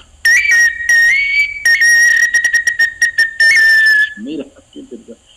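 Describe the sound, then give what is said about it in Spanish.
A water-filled whistle blown in several bursts, its high shrill tone warbling and bubbling, with a quick run of rapid trills before a few faint voiced sounds at the end. “Sóplales, sóplales, que ya se secó después de la conversa.”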